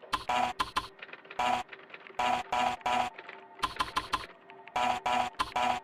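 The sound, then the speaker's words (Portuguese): A computer in a room sounding out a Morse code message that translates to "O EB": loud, harsh, buzzy bursts of short and longer lengths in clustered groups with brief gaps, over a faint steady electronic tone. No one speaks. “E saindo do elevador, ele chega numa sala com um computador, que faz uns barulhos bem interessantes.”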